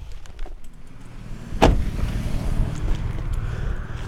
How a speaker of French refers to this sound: là maintenant je suis à la gare péage de Balbini. Je pense que je suis mieux que tout à l'heure il y a plus de voitures qui passent. Et d'un côté, elles vont à Lyon et de l'autre côté, c'est Bordeaux-Clermont-Ferrand, Saint-Étienne.